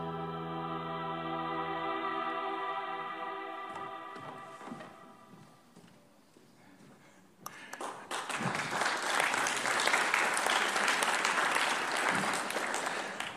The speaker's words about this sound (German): wofür auch immer ihr gerade klatscht, aber es wird richtig sein. Für die Vision oder dass ich da bin.